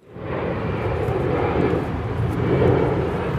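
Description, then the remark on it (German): A steady, loud roar of an airplane engine, constant with a broad low rumble and hiss, continuing without pause for the whole stretch. No one speaks. “Schneller ist man natürlich mit dem Flugzeug.”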